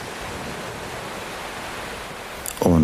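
A steady, even wash of ocean waves on a beach fills the background without distinct crashes, and a calm voice begins speaking over it right at the end.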